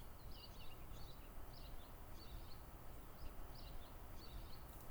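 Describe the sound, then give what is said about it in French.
A blackbird sings at dusk, its short, chirpy phrases repeating every second or so, faint over a soft, steady background hush. No one speaks. “Les derniers chanteurs de la journée seront sûrement les merles, encore.”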